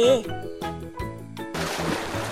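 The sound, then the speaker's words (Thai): A voice speaks briefly, then a loud splash as two characters plunge into the sea, followed by a second of churning, sloshing water. “ในที่สุดทั้งคู่ก็ร่วงลงสู่ทะเล”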